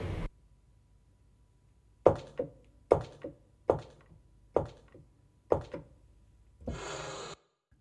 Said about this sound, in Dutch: Deurtje open.